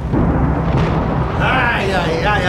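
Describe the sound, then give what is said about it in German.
A loud, rumbling crash of thunder rolls over a steady hiss of rain beating against a window pane on a gloomy morning, filling the whole stretch; partway through, a voice begins speaking over the storm. “Donner krachte und Regen prasselte an die Scheibe”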